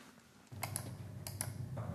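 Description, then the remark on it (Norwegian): A few quick clicks and taps from a computer mouse and keyboard as someone clicks into a case in Flora municipality's new system for streaming council meetings, spaced irregularly in two small bursts over a steady low background hum. “Da klikker man seg rett inn på, på, den saken, og får opp da saken fra begynnelsen og kan følge saken til den er ferdig.”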